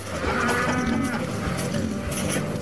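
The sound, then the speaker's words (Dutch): A cow lets out a long, drawn-out moo, loud, with a steady droning pitch that holds for a couple of seconds over faint outdoor background noise. “Er werden wegen aangelegd, huizen gebouwd, er graasden koeien en er groeide graan.”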